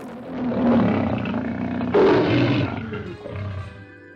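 A lion roars loudly in a few deep, rasping bursts, the growls swelling and fading over several seconds with no one speaking; it is the roaring lion of the opening credits of each film of Louis Meyer's Hollywood studio company.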